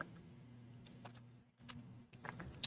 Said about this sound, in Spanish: Perdón, le di un trago aquí al, termo. Le voy a poner pausa para darle un trago a gusto, Que sé que se oye, se oye medio feo.